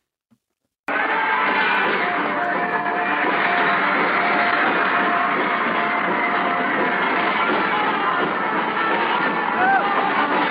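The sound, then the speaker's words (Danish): A huge crowd of girls screams nonstop at an arena concert, a deafening, dense, high-pitched roar of shrill voices that stays loud and unbroken for about ten seconds after a sudden start. “så skal man måske lige skrue en kende ned, fordi det er simpelthen øredøvende larm”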